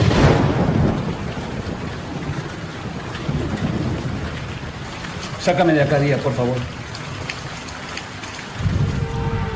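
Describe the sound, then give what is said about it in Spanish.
Steady, heavy rain hisses throughout around a car, a dense wash of drops, while a person speaks briefly in the middle, the voice partly buried under the downpour. “Ahora psicólogo y policía en el auto, bajo la lluvia.”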